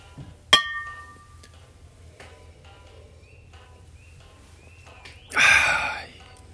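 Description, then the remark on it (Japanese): A single bright clink of glasses in a toast with Ryukyu awamori (Kumesen from Kumejima) rings out near the start and fades, followed near the end by a short breathy exhale or gasp after a sip; no talking. “是非お好きな焼酎をご用意していただき一緒に乾杯しましょうでは焼酎で乾杯”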